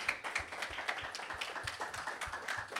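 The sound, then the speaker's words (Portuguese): A church audience applauds steadily for the Lord Jesus, a dense wash of many hands clapping with no voices, punctuated by soft low thumps recurring at a fairly regular beat throughout. “Você pode aplaudir bem forte o Senhor Jesus.”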